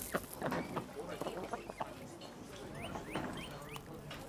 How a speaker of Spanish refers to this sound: Hay flores, hay una fuente de agua, hay patos, patos vivos y patitos que andan por ahí sacudiéndose, tomando agua, son adorables.